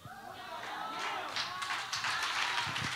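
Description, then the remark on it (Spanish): An audience breaks into steady applause for God, a dense wash of many hands clapping that holds for the full three seconds and swells slightly louder toward the end. “Si ese aplauso es para Dios.”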